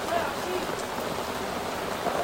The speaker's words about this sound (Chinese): 哇，我们下雨了，下大了，而且很大。